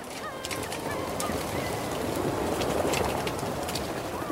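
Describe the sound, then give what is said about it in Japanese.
A dense chorus of seabird calls from a crowded breeding colony of rhinoceros auklets on Teuri Island, Hokkaido, Japan: overlapping low groaning and honking cries, continuous and fairly loud, with a busy wash of background noise. “天売島（北海道）のウトウをお届けします”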